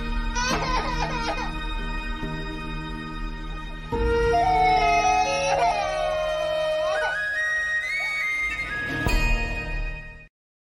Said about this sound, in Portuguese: Aqui o choro final foi eu que não me contive, porque a minha fantasia vai de mal a pior.